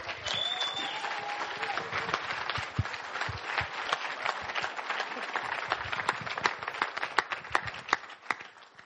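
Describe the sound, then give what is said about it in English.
A large crowd at a church service at Riverside Church in Exeter applauds steadily to welcome a pastor, dense clapping with a few cheers and whoops rising early on, sustained at an even loud level before tapering slightly at the end. “And as we do that, let's give a great rip roaring arena welcome to”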